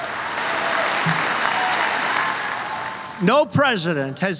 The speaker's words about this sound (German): America, we don't worship government, we worship God. In Amerika beten wir nicht die Regierung an, sondern Gott. Für diesen Satz erhält Trump langanhaltenden Applaus.